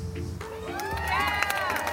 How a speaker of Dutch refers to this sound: Nou, dan mag dat applaus nog wel een keer van mij.